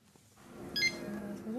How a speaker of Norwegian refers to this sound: Personsøkeren piper i hendene